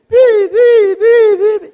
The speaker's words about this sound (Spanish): Y salen a derribar su muro y empiezan a darle y a darle y hacen bulla y hacen bulla. Acá suenan los chipotes chillones.